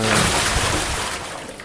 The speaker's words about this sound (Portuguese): vou pegar um, ba um, um barrilzinho, um balde cheio de água e vou jogar nela.